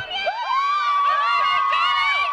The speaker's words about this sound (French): Oui, il y a des centaines de fans qui l'attendent à la sortie euh, du tribunal pour euh, le soutenir, pour crier son nom, pour l'acclamer.